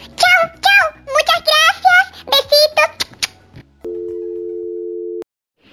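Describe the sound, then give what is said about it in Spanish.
A high-pitched voice speaks quickly, then the caller hangs up and the line cuts to a steady, unbroken telephone dial tone that hums for about a second and a half before stopping abruptly. “Te corto porque me voy a hablar con Dios.”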